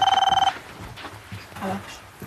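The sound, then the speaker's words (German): A telephone at an emergency dispatch centre rings with an incoming emergency call, a rapid, pulsing electronic trill for about half a second, bright and tonal, then gives way to quieter background sounds and murmured voices. “Ui, da kommt gerade ein Notruf rein, da hören wir jetzt gleich mal zu.”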